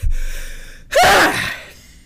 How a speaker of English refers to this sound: oh, sorry about that. If that scared you, sometimes my sneezes do that.